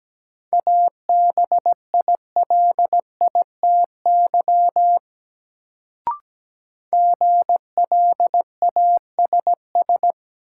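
Morse code word drill at a steady 17 words per minute: a single clear mid-pitched beep keyed into rapid dots and dashes, in two runs split by a brief pause and a sharp click, with no voices.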